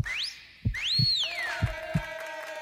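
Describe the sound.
Someone whistles sliding, swooping notes: a quick rising glide, then a longer one that climbs and falls away, over soft rhythmic low thumps and a faint steady hum.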